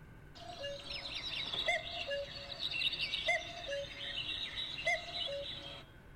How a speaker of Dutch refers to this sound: We pakken even de telefoon erbij. Dit is een opname van een echte koekoek uit de natuur.